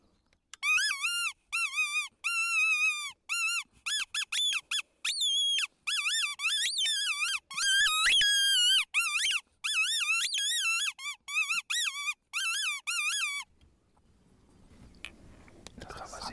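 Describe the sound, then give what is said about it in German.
A high, shrill hare distress squeal from a predator call, repeated in rapid wavering bursts for about thirteen seconds, loud and piercing, then fading into faint low rustling noise. “nicht weniger ambitioniert wie mit der Hasenklage versuchen”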